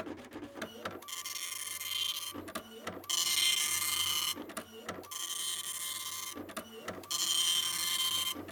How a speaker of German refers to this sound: Das da, das ist der Drucker. Er druckt die ganzen Seiten meines Probekapitels aus. Das habe ich geschrieben.